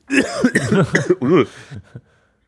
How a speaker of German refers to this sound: Ah ja, mein Gott. Muss ich halt ein bisschen husten.